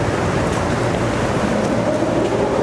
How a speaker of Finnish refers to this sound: Me ollaan siis Pasilassa tämmöisessä pysäköintihallissa, siitä johtuu tää kauhean kova meteli.